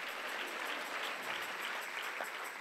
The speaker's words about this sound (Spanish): Dale mejor ese aplauso